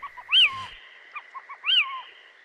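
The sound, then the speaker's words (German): A small owl gives two sharp, clipped calls about a second apart, each a quick rising-then-falling note, with softer short chirps in between. No talking. “Und Kauz auf die kurzen, abgehackten Laute.”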